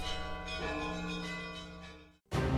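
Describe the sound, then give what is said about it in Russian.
A church bell rings loudly, its deep, shimmering tone sustaining and slowly fading before a fresh strike bursts in near the end. No voices are heard. “Иван, ты по что на колокол залез, Ірод, Ты поганий!”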